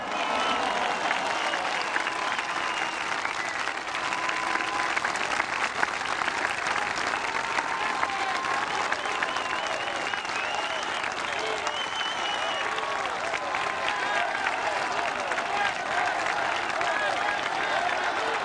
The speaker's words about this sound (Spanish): Aquí a todas, a todos ustedes, les pido que les brindemos un fuerte aplauso a las Fuerzas Armadas de México.